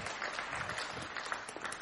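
A church audience gives a big round of applause, the dense patter of many hands blending into a continuous wash with a few sharper individual claps poking through, ending on a brief louder burst.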